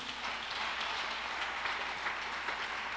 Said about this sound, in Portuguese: Você pode dar um aplauso a Jesus por isso?